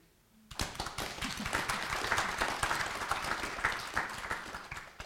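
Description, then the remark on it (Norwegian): An audience breaks into applause after a brief quiet moment, a dense, steady patter of many hands clapping that holds at an even level for several seconds with no voices heard. “Det burde dere egentlig få en ekstra klapp for.”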